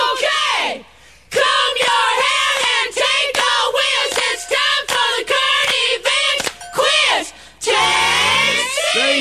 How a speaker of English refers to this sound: I don't know if you're supposed to scream like a woman before you do it.